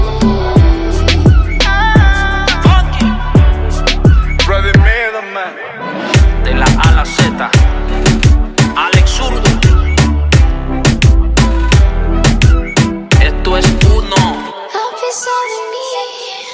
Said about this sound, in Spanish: acabamos de escuchar la canción … de … junto a …